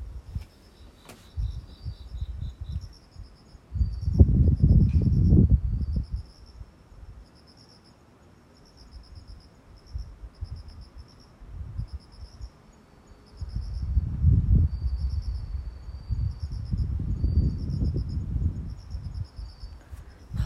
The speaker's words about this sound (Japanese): 風がボワボワねってますけども、もうコオロギが鳴いてるんですよねちょっと部屋に入りますね今ベランダにいたんですけど